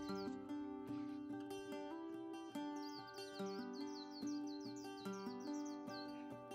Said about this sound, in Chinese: 这个声音你听出来了吗？是的，这是都市中常见的鸟儿绿绣眼，也是人称的奇雉呀。它的背部呈黄绿色，眼睛的周围围着一圈白色羽毛。脖子则是黄色，腹部是浅浅的灰色。这绿色小精灵身体约长十一公分，动作十分迅速敏捷